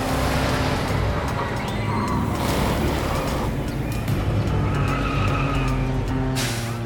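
A car engine roars steadily while tires screech and skid, the loud, continuous noise rising and fading over several seconds as the vehicle, driven through the streets, slides to a stop on arriving at an amusement park, with no talking.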